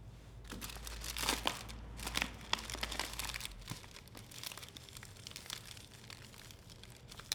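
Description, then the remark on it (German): Quiet, irregular paper crinkling and rustling, with short crisp bursts and small tearing sounds, over a low steady hum, as someone rolls a joint; no talking. “So, jetzt baue ich mir kurz einen Joint, weil dann kommt ein längeres Stück übers Weinen.”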